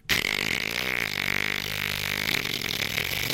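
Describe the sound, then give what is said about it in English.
A voice imitates a strange noise made by a clock on a shelf next to a sofa, which woke the speaker: a loud, sustained raspy buzz, held steadily for about three seconds before cutting off abruptly. “But this time, when I woke up, I was woken up by the clock, which was just on the shelf next to the sofa. There was a clock just there. And the clock was going”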